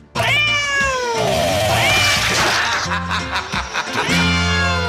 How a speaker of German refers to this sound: Hier noch ein Miau, hier noch eins, hier noch eins.